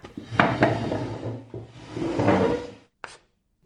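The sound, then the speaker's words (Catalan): A heavy wooden blackboard scrapes and rumbles across the floor in two long drags, then lands with a single sharp knock as it's set in place, with no talking. “Porta la pissarra. De seguida!”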